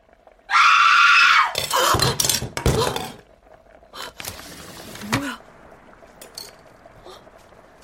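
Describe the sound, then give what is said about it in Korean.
A woman's piercing scream rings out loud for about a second from not far away, about two buildings over, around 4 p.m., followed by several sharp clattering crashes and then a low, quieter background. “어디선가 찢어지는 여자의 비명소리가 들려왔다.”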